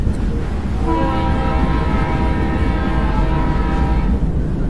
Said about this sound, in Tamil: ரயிலோட வேகம் அதிகமாக அதிகமாக காற்றோட வேகம் அதிகமாகுது